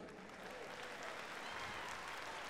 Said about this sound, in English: Yeah, clap for him.